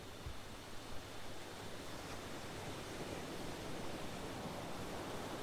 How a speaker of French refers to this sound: Essayez de sentir les odeurs iodées de ce bord de mer. Écoutez quelques instants les vagues qui vont et viennent. Vous êtes bercé par le rythme des vagues, calme, apaisante, régulière.